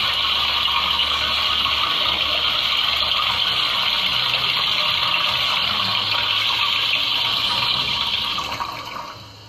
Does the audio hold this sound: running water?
yes